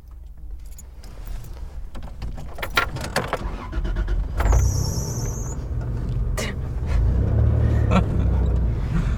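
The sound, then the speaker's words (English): A 1997 Tacoma pickup truck with 271,000 miles drives along a road, its engine rumbling low and steady, with scattered rattles and clicks, a brief metallic jingle midway, and the motor swelling louder near the end. “Tell me about your truck it's a Tacoma. 1997.”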